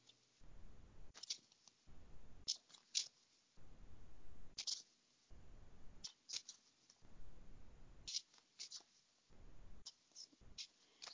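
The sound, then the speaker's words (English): A deck of cards being shuffled, with repeated crisp bursts of riffling and snapping separated by short pauses over about ten seconds, fairly quiet and with no one talking. “I'm shuffling.”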